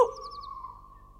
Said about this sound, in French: Tout à coup, il vit un gros hibou venir se poser sur un arbre de la rue. Une chouette caché sous une gouttière, s'agita et cria Kivit Kivit